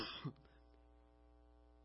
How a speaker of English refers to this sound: And I really apologize, but I've been dealing with a cold for weeks. So I guess it's time to go to the doctor because I'm over this cough.